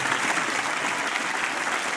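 Steady audience applause fills the whole two seconds, a dense, even wash of many hands clapping at a constant loud level with no voices breaking through.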